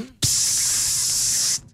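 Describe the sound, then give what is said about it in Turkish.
A steady aerosol hiss of hair spray bursts on sharply and holds for over a second before cutting off, loud, with no talking over it. “Ben ona sprey sıkmadım çünkü.”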